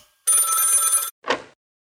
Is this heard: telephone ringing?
yes